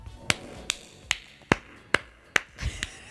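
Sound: one person clapping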